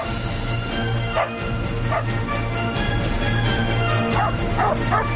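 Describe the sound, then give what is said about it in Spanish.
A dog named Hunter barks and yips furiously in rapid, repeated bursts as it chases a bird, loud over a steady low background hum. “Vuelve a salir volando y el perro furioso le sigue.”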